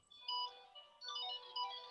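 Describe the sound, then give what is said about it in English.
A mobile phone ringtone plays a bright, melodic electronic tune in two short repeating bursts, fairly loud, with no talking over it. “I'm just putting myself on mute. It's my phone.”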